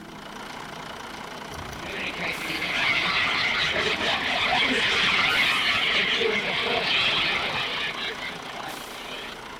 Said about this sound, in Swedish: Det här Youtube-klippet heter Autism Bus Ride, alltså ungefär att åka buss som autistisk.